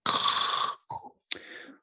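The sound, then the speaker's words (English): Someone imitates heavy, raspy mask breathing like that heard over a trailer's title card: one long rasping breath, then two shorter hissing breaths after brief pauses, with no words spoken. “Well, I, mean, I knew because it kind of if you watch the the previous teaser, they kind of have that breathing over like the the title card at the end.”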